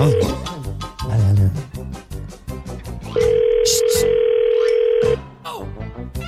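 A single long ringback tone of an outgoing phone call to an ice-pop vendor, a steady electronic buzz lasting about two seconds, heard clearly through the line between stretches of voices talking.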